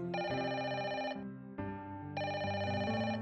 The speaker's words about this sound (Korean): 분주히 아침을 먹고 있을 때 느닷없이 전화벨이 울렸습니다.